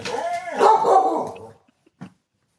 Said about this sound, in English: Sorry, my dog is barking at someone, and I don't know who. Uh oh. Hey, buddy. What are you barking at?